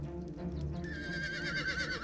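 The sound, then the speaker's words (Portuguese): A horse neighs in a long, wavering whinny that rises in pitch and trembles, against a low rumbling background, with no talking. “Eu perguntei pro cavalo.”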